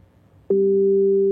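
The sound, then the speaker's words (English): An Echo Dot smart speaker's connection-lost error tone during a demonstration of the Arizona State University skill: after a half-second of quiet room noise, a loud, steady electronic two-note hum switches on abruptly and holds unbroken to the end. “your Echo Dot lost its connection.”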